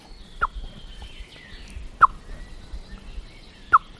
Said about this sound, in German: Was macht die Amsel? Es wird schneller, der Alarm. Der Alarm wird schneller, mhm. er wird häufiger, weil die Katze geht.